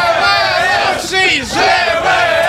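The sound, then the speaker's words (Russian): A live crowd chants and roars loudly in unison, a dense wall of many voices that swells, dips briefly, then surges back up, sustained throughout. “Ну и где скандирование? Вы что? Вот! Что-нибудь такое!”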